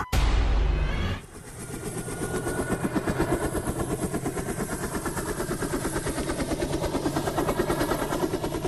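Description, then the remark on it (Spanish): A helicopter's rotor thumps in a fast, steady rhythm, loud, after a brief burst of louder noise at the start. The blade chop continues evenly throughout with no voices. “Estamos escuchando sonidos de helicóptero porque nuestra historia sonora de hoy, seguramente algunos fans que pues siguen las ligas europeas la conocen.”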